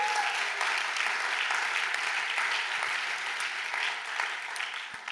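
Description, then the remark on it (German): An audience at an ICF church claps steadily for God, marking the church's 20 years and its 50th church founded, a dense, even wash of many hands with no pauses and no voices rising above it. “Kirche gegründet haben vor zwei, drei Wochen, ich glaube, das ist ein Applaus wert für unseren Gott im Himmel.”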